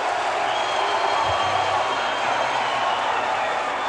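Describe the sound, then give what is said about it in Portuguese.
A concert audience boos loudly and continuously, a thick, steady wall of crowd noise that never lets up across the whole stretch. “Vocês estão vaiando a vocês mesmos vocês estão vaiando é há seis meses.”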